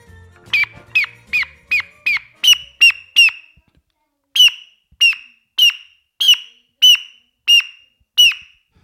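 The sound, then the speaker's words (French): A common blackbird calls with a steady series of sharp, high chinking notes, about a dozen and a half in two runs separated by a short pause, loud with no talking. “Alors le premier c'était quoi Le merle noir”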